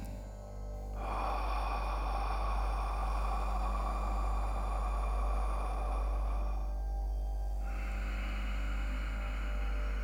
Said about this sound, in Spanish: una inhalación por la nariz y una exhalación por la boca generando así un ciclo en el que vamos a respirar durante tres minutos. El pranayama se realizaría así.